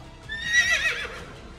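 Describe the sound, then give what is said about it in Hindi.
A horse whose rider is missing on a battlefield whinnies once, a bright, quavering neigh rising and falling over about a second, clear, trailing off into faint background noise. “हर तरफ शहीदों के पार्थिव शरीर थे घोड़े थे पर उनके सवारों का कुछ पता नहीं चल रहा था”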